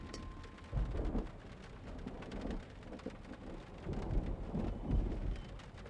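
Steady rain pours down in a dense, hissing wash, with low rumbles of thunder rolling beneath it and a few heavier bursts. No voices are present.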